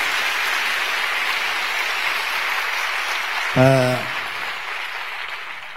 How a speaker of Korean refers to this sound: 자 우리 하나님께 영광의 박수를 드립니다. Let's give a glorious round of applause to the Lord.